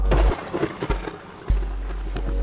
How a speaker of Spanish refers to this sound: Hace varios años me dio una gripa bastante fuerte después de que la lluvia me tomara por sorpresa dando un pequeño paseo.